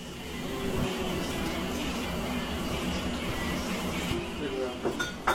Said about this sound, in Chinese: 刚刚大家听到这一段特别热闹的在做饭的声音，就是我我们的朋友们在做家宴的这个过程。